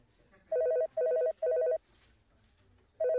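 A telephone rings in short repeated bursts, three quick trilling rings in a row, a pause, then a fourth begins; the tone is warbling, mid-pitched and loud, with no talking over it.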